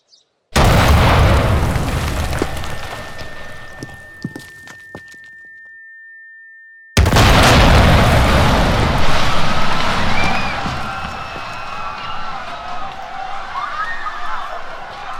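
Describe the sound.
A very large bomb, announced by the Israeli army, explodes in a sudden, very loud blast that rumbles and slowly fades over several seconds with a thin steady tone ringing above it. Then a burst of harsh noise and commotion follows, with voices mixed in.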